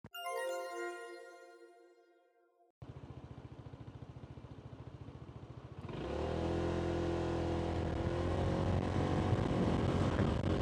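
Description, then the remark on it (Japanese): After a short descending chime, a motorcycle engine thrums with a steady pulsing beat, then revs up louder and rougher as the bike gets underway, with wind rushing past; recorded at night through a pin microphone inside the rider's helmet while touring around Okinawa Prefecture, Japan. “沖縄の沖縄ツーリングの魅力、まあ、良さをですねお伝えするためにですね僕昨日の晩にですねあのー、ヘルメットの中にピンマイクつけてはい。生の実況をしながらね、沖縄県のいろんなとこ回ってきました。”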